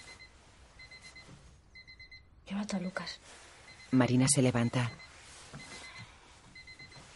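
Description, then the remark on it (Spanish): An electronic alarm clock beeps in short, steady repeated bursts at a moderate level beside a bed, continuing in the background while people speak over it, until a man switches it off. “Su marido apaga el despertador y hunde la cabeza en la almohada.”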